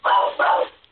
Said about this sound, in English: that's my dog. That's not a spirit. By the way, if you hear barking in the background there,